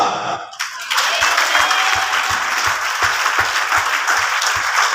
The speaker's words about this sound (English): Somebody clap for to God. And now I want a double clap.